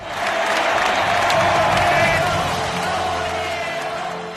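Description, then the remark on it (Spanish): A large crowd applauds steadily, a dense roar of clapping with scattered shouts and cheers, holding loud and even throughout before easing slightly toward the end. “Y termino ya con las ovaciones y me meto para adentro, que como me descuide empiezan las caceroladas.”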